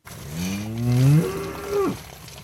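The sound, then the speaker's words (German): A single long, rising moo from a dairy cow on pasture, loud, with a harmonic sweep that climbs, holds, then drops off abruptly. Faint outdoor background, no voices. “Für seine Kühe das Signal, in geordneter Reihe die Wanderung zum gut 300 Meter entfernten Melkstand anzutreten.”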